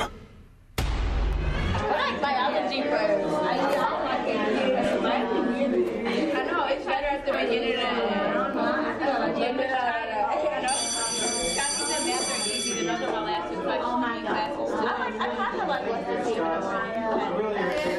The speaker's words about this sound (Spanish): Estamos escuchando eh, pues sonidos de una, de una secundaria